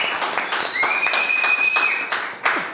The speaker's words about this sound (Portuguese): Uma salva de palmas.